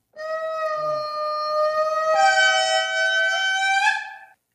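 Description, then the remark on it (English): An indri lemur call: one loud, sustained, horn-like wail lasting about four seconds, rich in harmonics, stepping up in pitch partway through before cutting off. No one speaks. “Here's the Indri lemur.”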